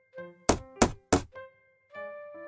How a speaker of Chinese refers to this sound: 第二天，下了一阵小雨，雨后，阿土又敲响了老熊家的门。